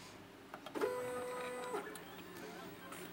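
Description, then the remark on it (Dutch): A bioprinter mechanism whirs into motion with a steady motorized hum lasting about a second, preceded by a few small clicks, as it starts printing a small ear. “Dat ga ik vanavond demonstreren door een klein oortje te printen.”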